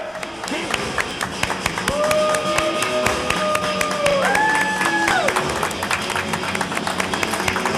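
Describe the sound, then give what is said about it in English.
A crowd claps steadily for several seconds, a dense patter of many hands at an even loudness, with a few drawn-out whistle-like or cheering tones rising over the applause partway through. “Remember, if you don't applaud yourself, no one else will.”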